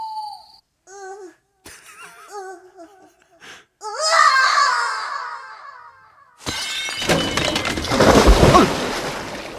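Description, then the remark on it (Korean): A mirror breaks with a loud, sustained shattering crash and someone falls into the pit of a traditional outdoor toilet in a shared yard at night, clattering on for several seconds, after a stretch of whimpering, babbling vocal sounds and brief knocks. “똥칸도 정답, 깨진 것도 정답, 그리고, 어, 빠진 것도 정답.”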